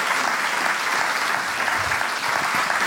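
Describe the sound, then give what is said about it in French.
Sustained audience applause thanking three speakers, a dense, steady wash of many hands clapping at once, loud and even throughout with no voices standing out. “Une bonne main d'applaudissements.”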